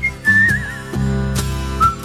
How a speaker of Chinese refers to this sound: 这口哨可以啊， 我跟你说，就就吹吹成这种口哨特别难， 啊， 因为他一般人吹哨就是比较直嘛，他是在这种就职业的那种口哨里面呢，它融入了很多那种颤音，这特别难，这个 吹出了弧度。